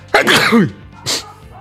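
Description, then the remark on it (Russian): A single loud sneeze with a sharp explosive burst, followed by a brief breathy sniff or exhale after a short pause. “Будь здоров.”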